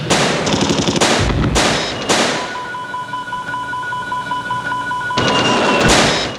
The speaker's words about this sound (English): Uh, but it looks like a Fourth of July display. Some are red, some are white. You can see explosions. You know, air burst explosions.